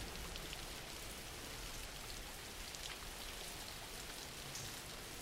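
Steady rain falls without a break, a dense hiss of drops pattering across a surface at an even, moderate level, with no voices.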